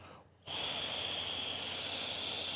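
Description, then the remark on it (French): After a brief pause, someone blows hard and steadily into an infrared breath analyzer, producing a loud, airy rush with a faint high whistle that holds to the end, no talking. “C'est un machin compliqué et ordinairement Mais ce qu'il faut très cher. Ce qu'il faut, je souffle.”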